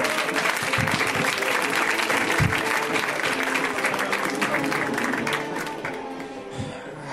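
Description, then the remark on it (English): An audience at a comedy show bursts into steady, dense applause as comic Eric Charles Nielsen is introduced, many hands clapping at once for several seconds before it begins to thin out slightly near the end. “Give it up for Eric.”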